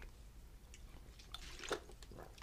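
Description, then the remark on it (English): Someone takes a few quiet sips of water, with soft wet swallowing and small liquid clicks scattered irregularly over a faint background hum, no talking. “Uh, okay, I already re- I already need water because I can't stop talking.”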